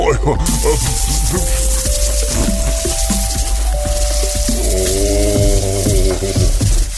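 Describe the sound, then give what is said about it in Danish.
Water sprays from a long fire hose, unrolled from a cabinet on the gable of a hotel, in a loud, steady hiss that runs the whole length, with sustained tonal notes and voice-like sounds layered over it. “Mosteren rullede en lang brændslange ud og tændte for hanen.”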